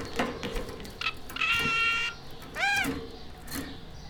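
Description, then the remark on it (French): A small caged bird with a mirror in its cage sings in bright, high chirps and a sustained buzzy trill, followed by a few rising whistled notes, with faint background noise and no talking. “Vous mettez toujours un miroir dans la cage ah, de vos oiseaux Toujours, oui.”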